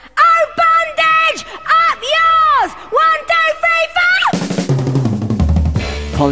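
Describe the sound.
A woman's voice delivers emphatic, half-shouted phrases on her own, then a loud, distorted British punk rock band crashes in with raw, shouted female vocals for the final couple of seconds.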